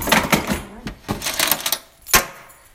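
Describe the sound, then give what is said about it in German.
Keys are picked up and jingled, with a quick series of bright metallic clinks and rattles in irregular bursts, ending in one sharper jangle. “Ich muss gerade noch meine Schlüssel”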